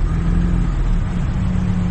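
An XR2 car engine with a weak battery barely starts and then revs, rumbling with a low, throaty drone that holds steady and loud, with no voices over it.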